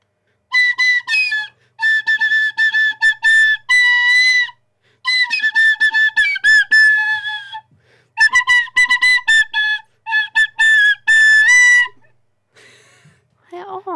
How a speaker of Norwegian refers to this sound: Nå prøver vi på blokkfløyte.